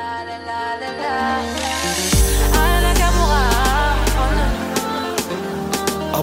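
A mellow French afro-pop love song plays loud and close, with a steady percussive beat, a deep sustained bass swell in the middle, and bright melodic layers on top.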